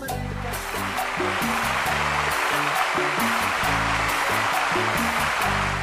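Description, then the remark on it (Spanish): Loud, steady applause from a crowd fills nearly six seconds, a dense unbroken crackle of clapping with a low musical rhythm playing underneath and no talking, welcoming an invited guest on a show. “Recibamos con un fuerte aplauso a Estefanía Veloz.”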